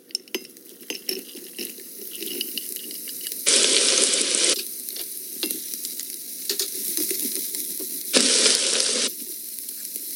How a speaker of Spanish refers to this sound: Ahora sí, vámonos a la estufa. En un poco de aceite de oliva caliente empezamos por freír todas las verduras.